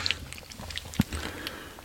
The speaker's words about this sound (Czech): Mlaskáme.